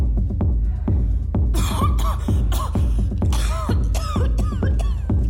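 A run of harsh coughs comes in quick, uneven bursts, a faked coughing fit with a few throat-clearing rasps, loud and alone with no talking.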